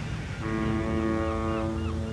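Steady ocean surf rushes in the background while a deep, sustained ship's horn tone rises and holds over it, loud, with no voices.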